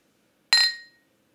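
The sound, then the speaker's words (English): A single bright clink of glasses knocked together in a toast, clear, its high ringing tone fading within half a second amid otherwise quiet surroundings. “That was a good clink.”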